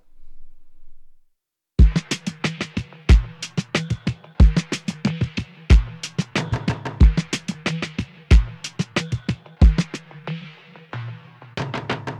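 A hip-hop track starts after a second of near-silence, loud and upfront, with heavy kick hits landing at a steady, unhurried pace under sharp, dense percussion.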